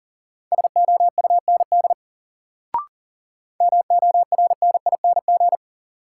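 Rapid Morse code beeps sending practice words at 40 words per minute, at a single steady pitch, in two quick bursts separated by a short pause with a faint click between them; clear, no voices.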